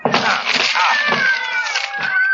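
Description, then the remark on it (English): About half a dozen cats meow and yowl in long, wavering wails that overlap inside a locked dressing room, while heavy thuds and cracking wood break through as people force the locked door open with their shoulders. “There are cats inside our dressing room.”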